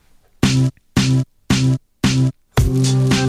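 A homemade instrumental jingle: four short, evenly spaced chord stabs followed by a longer held chord, loud and close, with no voices.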